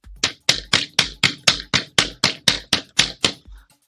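A hand slaps a desk over and over, about thirteen sharp, loud hits in a quick steady rhythm, each with a thud and bright crack, with no talking, reenacting how the desk was struck during a phone call.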